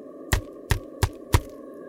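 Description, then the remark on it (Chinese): A finger flicking paper, over and over, in groups of taps: four crisp, dry taps at a steady, even pace, each short and bright, over a faint constant hum with no voices. “用指头弹纸张的这种声音， 啊， 三下为一组，不停的在那弹。”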